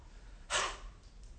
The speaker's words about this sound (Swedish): Han andas djupt för oss.